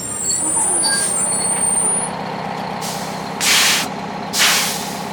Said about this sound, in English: This bus is coming to a stop.